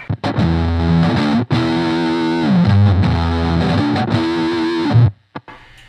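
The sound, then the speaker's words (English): Electric guitar played through an Expandora overdrive pedal in Crunch mode, loud chugging chords with gritty distortion and rich harmonics, a few short phrases with brief breaks, ending abruptly before silence. “This is the Expandora and Crunch mode.”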